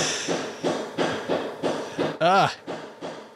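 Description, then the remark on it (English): Steady, repeated hammer blows from kitchen renovation work, about two strikes per second, loud, with a brief spoken exclamation cutting in partway through. “That's the sound of mom redoing the kitchen while we do this.”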